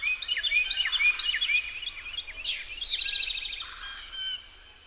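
Several birds sing and call at once, overlapping bright chirps, whistled phrases and a rapid high trill near the middle, with a faint low rumble underneath and no voices.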